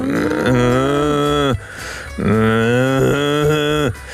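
Two long, drawn-out cow moos, loud, each lasting about a second with a short pause between them, deep and resonant with no talking over them.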